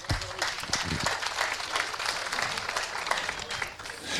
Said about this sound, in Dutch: Ja, applaus.